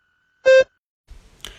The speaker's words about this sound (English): Begin speaking after the beep.